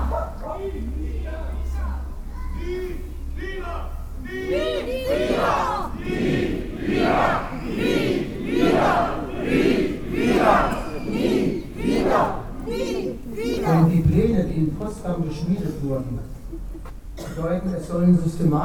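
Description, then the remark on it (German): A large protest crowd loudly chants the slogan "Nie wieder" (never again) in unison, repeating it in a steady rhythm of shouted syllables that fills the space with massed voices. “Aber wir müssen noch einmal so laut sagen, nie wieder. Nie wieder.”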